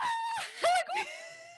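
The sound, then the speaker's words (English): A voice imitates a drawn-out scream made while falling toward water after a jump, a wavering high-pitched cry that swells sharply in the middle before trailing off into a steady, fading tone. It is loud and heard alone. “just jumping up and down and then that like gravity just kind of like hits you like you can feel your stomach rising to your throat and that's when i started to scream and i was i still had not reached the water yet that's when i started i'm like ah!”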